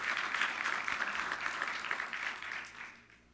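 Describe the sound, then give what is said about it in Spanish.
An audience applauds with steady, dense clapping for about three seconds, then the sound thins and fades out at the end. No one speaks over it. “Dar un aplauso, Señor.”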